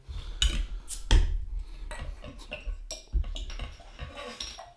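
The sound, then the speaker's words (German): A bottle of Double IPA beer, Run the Jewels from Brillo of Berlin, is opened: metallic clinks and scrapes from the cap and opener, with a couple of sharp bright snaps, then some faint rustling and handling. No one speaks. “Ich mache mal erst meins auf. Ich hoffe, es schäumt nicht so sehr”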